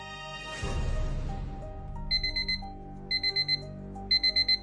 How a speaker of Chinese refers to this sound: 床头的闹钟准时的响了起来